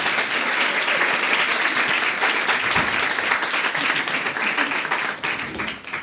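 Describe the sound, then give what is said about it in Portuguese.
A crowd applauds steadily and loudly for a man who won the Site Mobile 2018 award, dense overlapping claps filling the whole stretch with no one talking, tapering slightly near the end. “Aplausos!”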